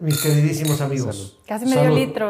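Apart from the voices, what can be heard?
glasses clinking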